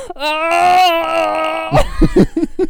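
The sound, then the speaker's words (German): A voice imitates a sudden, random screaming outburst from a tic: a loud, high, strained cry held for over a second, then breaking into several short, choppy vocal bursts. “Fängst auf einmal an rumzubrüllen.”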